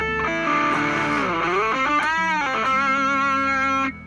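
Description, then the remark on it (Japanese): An electric guitar plays alone with a distorted, effects-laden tone, holding sustained notes that bend and slide in pitch, loud, for a few seconds before cutting off. “という感じでギターも弾きつつ始めていこうと思うんですけど”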